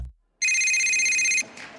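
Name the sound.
telephone ringing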